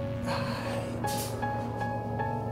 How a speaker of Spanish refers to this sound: Eso es que si escuchas la lavadora. Tenemos que lavar ropa.